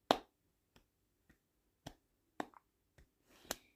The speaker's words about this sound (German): Boah, das ist ja voll laut. Ich weiß nicht, ob Klatschen so eine gute Idee ist. Nein. Ich glaube, das ist nicht so eine gute Idee sonst knallt das so in den Ohren.